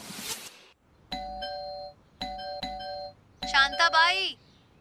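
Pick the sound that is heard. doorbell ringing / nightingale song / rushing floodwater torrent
doorbell ringing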